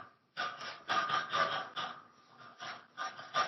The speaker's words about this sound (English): sorry, the, the heater, I don't know if you That's can hear that. That's a unique sound. I can. okay, yeah. That's the heater. We have PU, the way the storm is, it's like a, um, what's it called? A radiator, right?